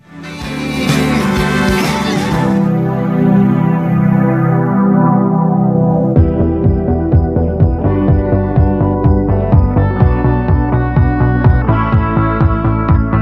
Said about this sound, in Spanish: Y nos presentan el siguiente tema que suena así.